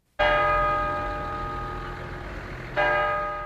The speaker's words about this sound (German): Jede Viertelstunde schlägt die Glocke im Kirchturm von Fischbachau im Leitzachtal. Weithin hörbar über Kilometer, wenn der Wind stimmt. Die Glocke unterteilt die Stunde in vier gleiche Teile.